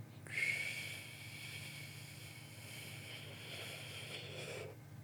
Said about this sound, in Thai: สมมุติติ้งต่างว่าผมมีหลอดแล้วกัน ใช้ปากสี่วิ หายใจออกสี่วิทางจมูก หายใจเข้าทางปากเหมือนเดิม